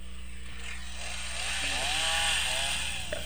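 An electric saw runs steadily throughout, a loud, buzzing motor drone with a whining pitch that rises and wavers as it bites, with no voices.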